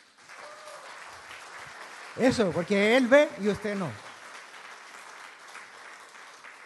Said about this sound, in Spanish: ¿No le da emoción? Pues dé un aplauso a Dios, ¿no?